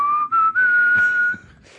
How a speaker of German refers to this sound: Oder pfeifen, … oder so.